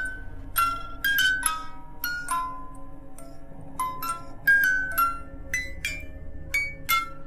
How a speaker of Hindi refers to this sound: वो एक लकड़ी का खिलौना था दिखने में वो काफी पुराना था पर आज भी काम कर रहा था उसकी चाबी घुमाते ही उसके अंदर से एक प्यारी सी धुन सुनाई देती थी